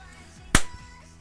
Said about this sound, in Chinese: 你拍手干嘛？